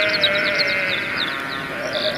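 Sheep bleat loudly and close by, a sustained wavering baa that runs the whole time with no talking, layered with a few overlapping calls.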